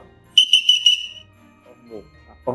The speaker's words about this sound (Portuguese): Geral, o apito ele tem muitas formas de trabalhar com ele. Ele é que manda praticamente. Quando começa a peça, para terminar eu tenho que apitar, para formar eu tenho que apitar.